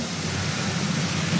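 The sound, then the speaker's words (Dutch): A toilet flushing: a steady, loud rush of water with a broad hiss, holding even throughout the short moment with no voices over it. “Bij mij spoelt hij door al.”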